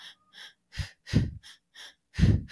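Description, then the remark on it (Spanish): Rhythmic breathing through mouth and nose: two quick, airy inhales followed by two heavier, forceful exhales, the pattern repeating in an even, paced cycle with no talking, demonstrating a runner's breathing technique for races. “Así que por boca y nariz yo inhalo en dos tiempos y exhalo en dos tiempos y es como...”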